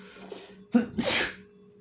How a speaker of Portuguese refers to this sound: Eu tô com muita alergia. E eu espirro de um jeito muito estranho também. Eu espirro sem fazer muito escândalo, só que sem ser silencioso. É sempre o um meio termo.